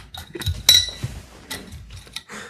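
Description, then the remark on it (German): Bottles of Flensburger beer clink together in a toast, one bright, ringing knock, followed by a few softer taps and handling noises from the bottles. “Prost. Prost, Prösterchen.”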